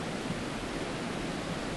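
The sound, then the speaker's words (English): A steady, continuous rush of flowing water, even and unbroken throughout, moderately loud, with no voices. “So that sound, I'm only about, I can see the water flowing.”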